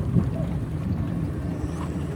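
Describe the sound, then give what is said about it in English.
A boat engine, just started, hums steadily, a constant low rumble with wind buffeting the microphone as the boat drives down a river. “that's Toby starting the the engine”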